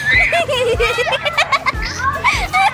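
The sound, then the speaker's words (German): Several children shout and chatter excitedly in the Entdeckerviertel region of Upper Austria, Austria, their high voices overlapping in lively play, with bursts of laughter and a few low thumps underneath. “Und jetzt nehmen wir euch mit in diese Welt voller Kinderlachen, heißer Motoren, großer Moore, viel Musik, Burgen und Wasserspaß.”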